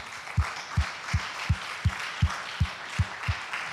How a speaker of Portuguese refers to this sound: Vamos aplaudir o nome do Senhor, queridos.